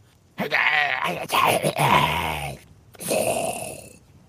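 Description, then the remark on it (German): A man, a player in a role-playing game, gives a held-back, groaning battle cry, a strained drawn-out vocal shout lasting about two seconds, followed by a breathy, hissing exhale. It is moderately loud, with no other sounds. “Nee, nee, es sollte nur ein Kampfschrei sein.”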